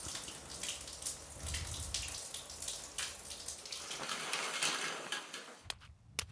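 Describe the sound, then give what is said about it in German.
Warm water runs steadily from a tap, a continuous splashing hiss, then cuts off abruptly near the end, leaving a brief quiet tail. “mach das warme Wasser wieder an.”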